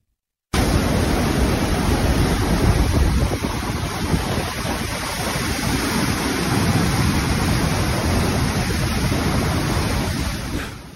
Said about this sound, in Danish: I går der tog vi en tur nordpå til Hønefoss for at høre, hvordan det stod til, og der var det allerede ret kritisk. Og sådan her lød det fra elven, hvor vandet brager ned gennem byen.